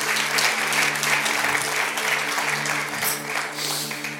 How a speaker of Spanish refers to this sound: ¿Cuántos alaban a Dios? Dale un fuerte aplauso al Señor y ponte de pie conmigo.